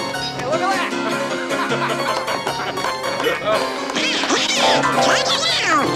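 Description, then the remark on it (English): A cartoon duck voice quacks and sputters rapid, unintelligible gibberish over busy background music, loud, with overlapping squawky bursts throughout. “Does anybody understand what this duck is saying?”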